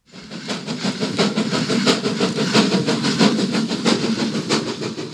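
An old Rhaetian Railway (RhB) steam locomotive named Rosa chugs steadily, its loud puffs of steam coming in a regular rhythmic beat with metallic rattling, continuous, with no voices.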